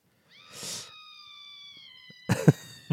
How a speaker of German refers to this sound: Okay, ist einfach nur ein Schrei.